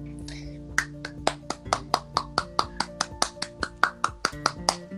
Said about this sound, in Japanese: こう拍手起こるやん大体普通こういう時ってほうほうほだから入れうん、そう入れていかんとなってタイトルコールの後はさ拍手があるやん普通